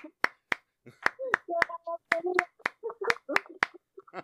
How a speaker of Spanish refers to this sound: Palmas para Francesco.